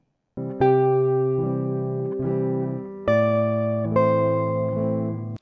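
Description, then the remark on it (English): A short, steady musical phrase of sustained electronic-sounding chords, shifting every second or so, with a dissonant appoggiatura note resolving into a calm, consonant harmony. No voices. “This is a perfect example of an appoggiatura tension moving to calm, dissonance to consonance.”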